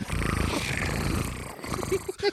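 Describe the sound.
A voice imitates a cat's purr: a steady, low rattling rumble for over a second, then a few short breathy voiced sounds trailing off.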